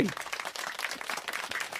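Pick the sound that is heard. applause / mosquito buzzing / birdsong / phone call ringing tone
applause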